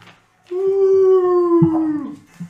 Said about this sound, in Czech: Eh, a jak vy se začnete blížit eh, a uvidíte tyhle ty obry ze zadu, tak najednou uslyšíte takový zavití.